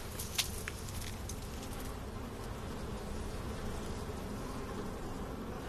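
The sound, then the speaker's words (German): A dense, steady drone of many honeybees, likely a few hundred thousand, buzzing together outdoors over a farmer's field in full bloom, continuous, with a few faint clicks early on and no voices. “Mein Gott, was für ein Gesumm. Da sind noch mehrere Bienenstück drin.”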